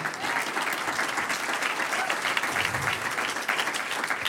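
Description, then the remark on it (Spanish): An audience applauds God together in a steady, dense burst of applause, a continuous crackle of many hands at a fairly constant loudness for several seconds, with no clear speech over it. “Un aplauso al que vive.”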